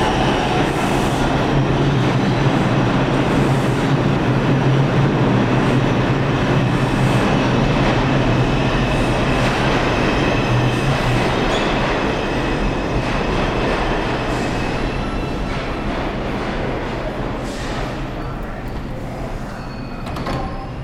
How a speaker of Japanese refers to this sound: 列車が来ました。